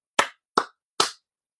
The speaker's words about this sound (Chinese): 所以在这里呢，其他我也不多说了，只献上我对于卢顿深深的敬意和掌声。